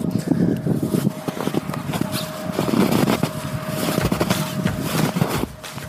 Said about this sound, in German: Also hier ist richtig bestimmt Meter tiefer Schnee, wahnsinnig toll und ich muss jetzt für euch mal dieses Geräusch vom Knirschen aufnehmen.